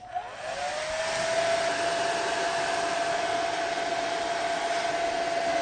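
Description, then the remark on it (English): A hairdryer switches on, its motor whine rising briefly before settling into a loud, steady blowing roar with a constant high hum, held in one place to heat a polythene bag, with no voices. “Well, what we're going to do is we're going to heat up the polythene bag with a hairdryer and see what happens to it.”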